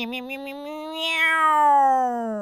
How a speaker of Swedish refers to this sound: Mjau! Åh nej! Mjau!